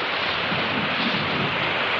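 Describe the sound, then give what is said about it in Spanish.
Heavy rain pours down in a dense, steady hiss that fills the whole stretch, loud with no pauses or voices, falling in woodland among trees and ferns. “Bajo una espesa lluvia y con un paraguas en la mano, el magistral se abre paso entre árboles y helechos, seguido por don Víctor.”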